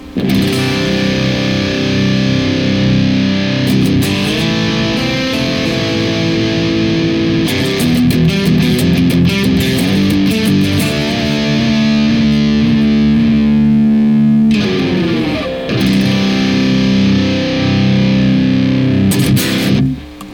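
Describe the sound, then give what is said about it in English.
Heavily distorted electric guitar through a DS1 distortion pedal, a compressor and a 10-band EQ, into an amp with KT88 power tubes and a 4x12 Greenback cabinet, plays sustained chords and riffs, loud and continuous with a thick, fuzzy saturated tone and sharp pick attacks between held notes, no voices. “Uh, we have left the compressor the same, the DS1 is the same. We manipulated the 10 band EQ ever so slightly uh, in order to bring down the higher frequency arc.”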